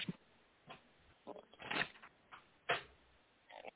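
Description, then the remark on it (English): A deck of tarot cards being shuffled in short, papery bursts, with several riffling flurries spread unevenly across a few seconds, fairly quiet, with no talking. “As I shuffle off to Buffalo over here, you guys on the uh, live video feeds over on YouTube and Facebook, uh, just bear with me.”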